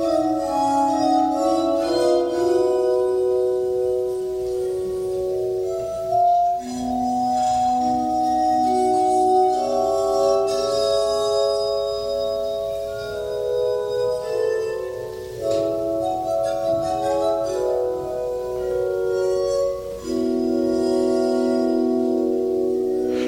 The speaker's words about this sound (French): œuvre classique écrite directement pour l'harmonica de verre, c'était ça. Adagio pour harmonica de verre, Köchel 356 de Wolfgang Amadeus Mozart.